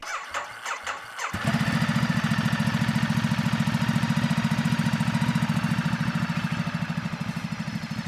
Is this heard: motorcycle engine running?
yes